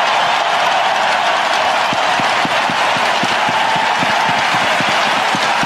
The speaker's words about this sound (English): Crowd still going wild. He's just standing around out there. And Bally Sports Detroit played, stayed with it the entire time. Look, they get even louder.